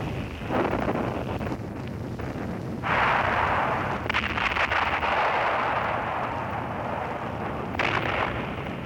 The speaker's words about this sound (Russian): Вот репортаж с места боев у Невской Дубровки. Все кругом сотрясается от гула. Снаряды рвутся.